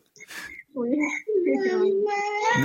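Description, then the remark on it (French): A young child, a little girl or boy, vocalizes close by: a brief noisy burst, then two longer, sustained babbling or whining sounds, fairly loud and with no adult speech over them. “Et puis euh, prenez bien soin de votre petite fille ou votre petit garçon qu'on entend juste à côté, je suppose.”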